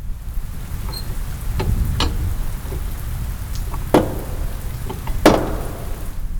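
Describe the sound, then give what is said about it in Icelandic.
A large knocker on a door about three metres tall strikes a few times at uneven intervals, the sharp metallic knocks ringing out and echoing through a palace over a steady, hissing background noise. “Ég heyri banki bergmála um höllina og stuttur setna heyri ég háverðan smell eins og tekið sér úr lás.”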